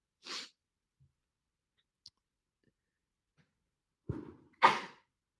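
a person sneezing

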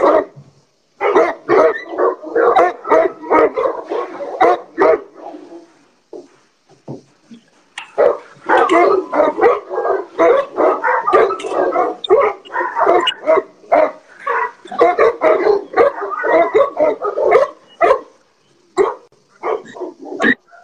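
dogs barking in kennels

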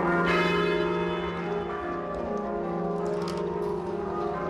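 church bells tolling

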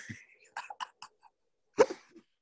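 sneeze

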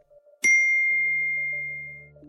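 phone notification ding

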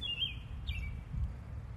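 birds singing outdoors

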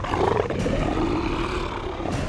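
lion roaring

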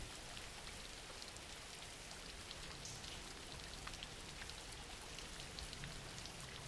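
background rain

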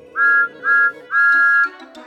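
steam engine whistle

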